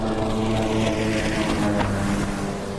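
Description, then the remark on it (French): A jet ski engine roars steadily and loudly, a constant buzzing drone with strong layered tones that holds for a few seconds without any voices. “Un moteur de jet ski, ça hurle de 120 à 190 décibels”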